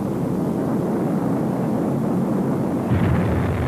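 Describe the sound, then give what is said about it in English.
A violent steam-driven volcanic eruption on land in 1960, caused by a small amount of water mixing with lava in the vent, roars steadily and loudly, a dense rumbling rush that swells slightly toward the end, with no voices present. “On land, when a small amount of water mixes with lava in the vent, the result can be a violent steam-driven eruption, such as this one in 1960.”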